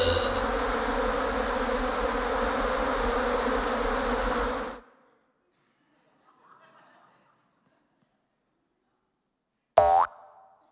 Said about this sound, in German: Ja. Hier sind Heuschrecken.